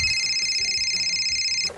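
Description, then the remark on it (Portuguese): A home telephone rings at six in the morning with a steady, high-pitched electronic tone, loud, sounding continuously before cutting off abruptly just before the end. “Quando foi no outro dia, 6 horas da manhã, o telefone lá de casa toca.”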